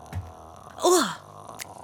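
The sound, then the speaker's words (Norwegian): A person briefly imitates the croaking rattle of the ghost from the horror film The Grudge: one short, raspy vocal groan that slides downward in pitch, with quiet surroundings before and after. “Det var grudge-lyd.”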